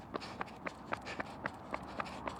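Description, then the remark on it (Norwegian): Quick, evenly paced footsteps of a man running, about nine sharp impacts in a steady rhythm, over a constant background hum. “Jeg hører han, han har bra tempo i Ja, la meg høre her nå.”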